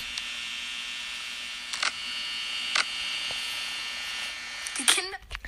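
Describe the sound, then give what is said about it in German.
A camera-switch sound effect: a few sharp, shutter-like clicks spaced about a second apart over a steady electronic whine, ending with a louder click and a brief warbling sweep. “Immer dieses Cam-Switch-Geräusch, beste Leben.”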